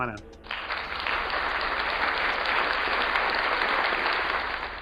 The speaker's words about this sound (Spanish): Bueno, eso sería fuertes aplausos.